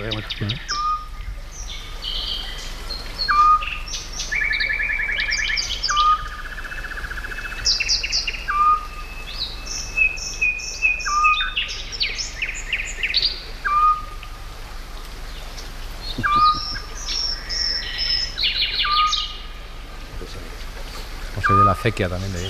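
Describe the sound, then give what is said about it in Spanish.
Several nightingales sing in bright, echoing phrases of whistles, trills and rapid chirps, one playing with the echo and another answering from lower down, while an owl's soft, regular hoot repeats underneath like a metronome, all without any talking. “hay un ruiseñor que está jugando literalmente con el eco, con la reverberación”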